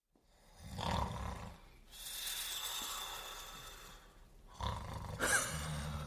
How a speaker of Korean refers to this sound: 아이고, 잘 자네. 코고는 소리가 작은 집안을 채웠다. 대수는 보청기를 만지작거리며 그 소리에 귀를 기울였다.